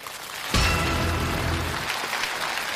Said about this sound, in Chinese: 掌声有请陈可辛导演开讲。